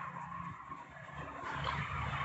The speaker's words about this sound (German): Also falls, falls man jetzt hier im Hintergrund möglicherweise Autos hört. Ja, der Garten ist eine Straße. Der Garten ist, grenzt an eine Brücke, die über die Lahn führt.